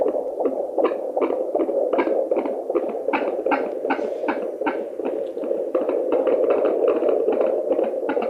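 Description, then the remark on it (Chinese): A fetal heartbeat: a fast, steady run of whooshing thumps, roughly twenty beats, pulsing over a continuous low swishing hum, with no voices. “对呀，所以我们现在呢，就来感受一下生命开始的声音。”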